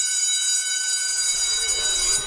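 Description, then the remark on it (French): A school bell rings loudly and steadily, a continuous bright metallic clanging with no pauses and no talking, holding at the same level until it cuts off. “La cloche sonne déjà.”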